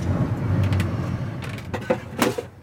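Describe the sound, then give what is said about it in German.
The engine of the blue-and-white fishing cutter Alvin sputters as it tries to start in the fishing harbor of Jastarnia, Poland, under a cloudless sky: a low, uneven rumble broken by several irregular, coughing bursts that never settle into a steady run. “Der Motor stottert.”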